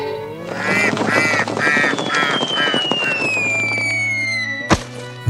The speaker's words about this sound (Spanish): Los patos dicen hola.